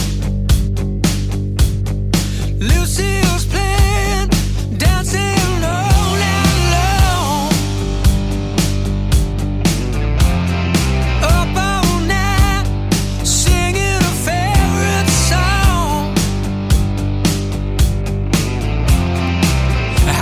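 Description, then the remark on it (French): A loud, dense hard rock passage plays throughout, with steady pounding drums, thick distorted guitars and a male voice singing over the top at full volume. “Ça m'a fait vraiment penser à ce groupe légendaire … sur l'extrait que nous allons écouter, ….”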